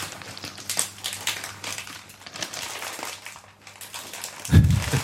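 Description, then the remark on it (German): Crinkling of a blue Kettle Sea Salt and Balsamic Vinegar crisp bag being squeezed, a continuous crackly rustle with uneven bursts, ending in a louder thump-like crunch near the end. “Du kannst doch nicht einfach den Tüten zusammendrücken, dann spritzt das doch halt alle nicht.”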